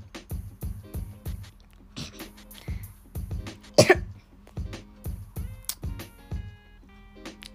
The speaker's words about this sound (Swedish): Jobbigt att jag hostar där.